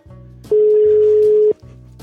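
A single loud, steady ringback tone of an outgoing phone call sounds for about one second, with faint voices talking just before and after it.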